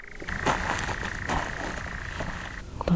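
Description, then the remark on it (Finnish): A steady, unbroken churring trill from a male European nightjar drones at a distance at night for a couple of seconds, faint against a low background rumble before cutting off. “kauempaa kuuluu kierrä ja koiran surinaa”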